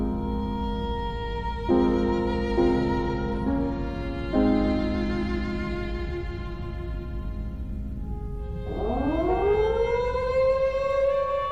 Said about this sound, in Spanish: Rompen entonces el alba las vibraciones alarmantes de las sirenas.